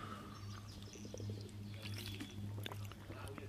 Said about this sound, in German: Ich habe einen Schluck Wasser genommen. Entschuldigung. Ah, okay. Es war kein Klappern, okay. es war ein Klucksen, sagt man, glaube ich, wenn man Wasser schluckt.